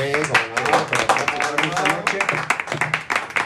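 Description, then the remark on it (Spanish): A crowd claps steadily, a dense patter of many hands, while a voice keeps speaking over the applause throughout, at an evening event. “Pues eh, vamos a darle un fuerte aplauso a todos los.”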